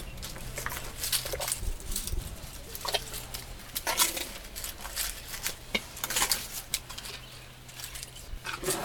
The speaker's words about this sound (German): Oder ein Elefant mampft Blütenblätter direkt am Zelt. Das klingt dann so. Ein Gänsehauterlebnis. Eine ausgewachsene Elefantenkuh, fast drei Meter hoch, steht praktisch neben mir, nur durch die Zeltwand getrennt. Ich höre sie schnaufen und kauen.